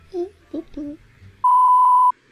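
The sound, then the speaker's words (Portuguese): A few short bursts of speech, then a loud, steady single-pitched censorship bleep lasting well over half a second before cutting off abruptly into quiet. “para pessoa pagar muito dinheiro para escutar o que a gente fala sem bip.”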